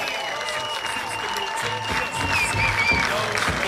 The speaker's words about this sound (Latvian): Tāpēc viskaļākie aplausi šiem puišiem